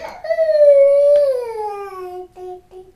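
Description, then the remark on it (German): A baby girl lets out a long, loud squeal that starts high and slides steadily downward in pitch, held for a few seconds before trailing off in short wavering bits. “Und so, und so quietschen tut sie sowieso gerne, dass sie dann so eine Ton von ganz oben anfängt und nach unten so, so runter quietscht.”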